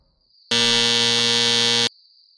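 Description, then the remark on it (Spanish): A doorbell buzzer sounds once as Speck rings the bell of a residence of student nurses in the Jeffrey Manor area of Chicago: a single loud, harsh, steady buzz lasting over a second, with a faint high-pitched whine lingering before and after it. “Speck Tocó el timbre y al abrirse la puerta, empujó a la joven.”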